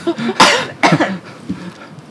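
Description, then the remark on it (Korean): Two sharp coughs in quick succession, loud and breathy, followed by a few soft throat noises and quiet breathing, as a person coughs before speaking in a discussion. “아, 기침 한 번만 하면 돼요?”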